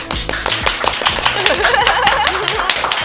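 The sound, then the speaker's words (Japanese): A crowd at a live public recording of a show applauds steadily, many hands clapping in a dense, even patter that stays loud throughout, with a low melodic tone and faint voices mixed in underneath. “拍手がいっぱい”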